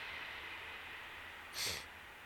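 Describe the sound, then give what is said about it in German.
Steady, distant rumbling noise of a train rolling past, fairly faint, with a brief hiss-like burst near the end; no one speaks. “Ja, ist ein Zug. Ich sitze hier in der Nähe von den Bahngleisen.”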